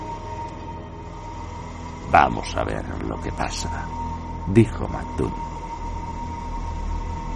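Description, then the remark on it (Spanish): A lighthouse foghorn siren drones steadily and unbroken throughout, a constant tonal hum, while a voice speaks briefly over it in the middle. “La sirena sonaba.”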